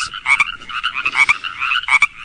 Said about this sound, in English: I think the next one is frogs. Yep, chorus frogs.